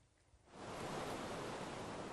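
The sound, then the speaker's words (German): Caspian Sea waves wash onto a beach, a broad hissing surge of surf that swells in after a quiet moment and keeps rushing steadily, fairly loud, with no voices. “Jeden Tag trainiert sie eineinhalb Stunden am Strand vom Kaspischen Meer.”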